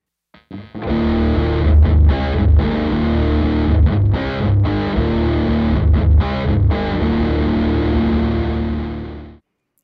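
An electric guitar played through an OCD overdrive pedal powered at 18 volts: thick, distorted chords ring out steadily for about nine seconds with brief rhythmic breaks, loud and alone with no talking.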